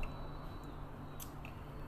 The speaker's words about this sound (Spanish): Perdón, tomo agua.